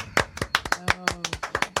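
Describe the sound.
A small group claps their hands to welcome two women in, a quick, uneven patter of sharp claps that runs the whole time, with a faint voice murmuring briefly underneath.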